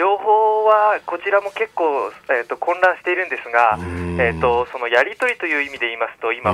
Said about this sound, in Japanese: 本当にこちらですね、ええ、あの電波状況が悪くて。私、今話しているのが公衆電話なんですね